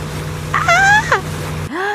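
A fast speedboat's steady low motor drone hums throughout during a banana boat ride, with a high, wavering cry rising over it midway before the sound cuts abruptly to a different scene.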